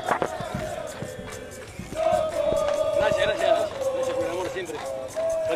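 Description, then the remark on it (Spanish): A crowd shouts and cheers together, a dense wall of voices that swells louder after the first couple of seconds, with sharp thumps and bangs scattered through the noise. “¿Cómo grita la gente, mirá.”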